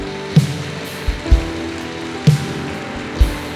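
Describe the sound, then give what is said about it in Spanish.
An audience applauds in a steady, dense wash of clapping, with a few sharper, louder claps standing out every second or so over a low sustained musical tone. “Vamos, denle un aplauso a Él.”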